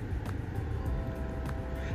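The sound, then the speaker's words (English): Steady, muffled low rumble of a car interior, like an engine or road noise heard from inside the cabin, with a few faint light ticks and no one speaking. “You know, now I gotta um, I'm in my car right now.”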